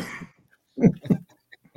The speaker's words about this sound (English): I'm better. I'm just congested, so I I'm still coughing up a lung and, and that whole deal. But I feel a lot better.